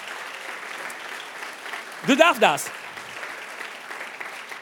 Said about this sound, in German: Halleluja! Ja, gut dabei. Ein Applaus für Jesus. Ja, du darfst das. Du darfst das.